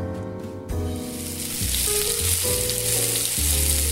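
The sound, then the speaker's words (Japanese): A beef fillet steak, served as the main meat course of an anniversary dinner, sizzles loudly and steadily, a dense crackling hiss that starts abruptly after a quiet moment, with a low tonal hum running underneath. No one speaks. “お待たせいたしました牛フィレのステーキでございます記念日ディナーも中盤に差し掛かりメインの肉料理が運ばれてきた”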